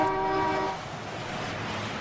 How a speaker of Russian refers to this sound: люди выезжали на ночные улицы Москвы, по крайней мере, здесь так было, на Тверской, и сигналили. Поэтому давайте посигналим прямо сейчас. Давайте, сигналим громче, громче, громче, громче сигналим.